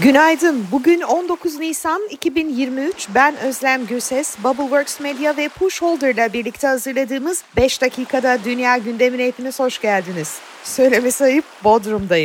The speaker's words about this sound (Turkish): Gerçi iş için geldim ama denizin bu güzel sesi bile yetiyor insana.